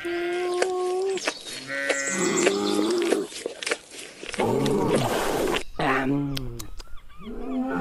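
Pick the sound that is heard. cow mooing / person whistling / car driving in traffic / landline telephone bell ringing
cow mooing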